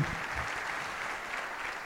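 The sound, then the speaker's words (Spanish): A crowd claps steadily in a dense, even wash of applause that holds at a constant level for the whole couple of seconds, with no voices rising above it. “Un aplauso porque así se quiebra.”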